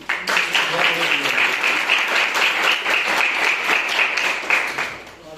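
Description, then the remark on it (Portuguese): An audience claps together in worship of the Lord, sustained, dense applause that stays steady and loud for several seconds before easing off at the end, with no one speaking over it. “E eu agradeço a oportunidade e as palmas que adorem ao Senhor.”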